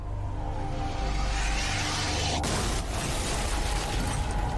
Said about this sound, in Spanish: Una gran explosión sacude la oficina del FBI.